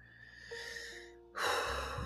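A single deep inhale taken as part of a breathing exercise, a breathy rushing sound that swells suddenly and holds for under a second, preceded by a quiet steady hum with no talking.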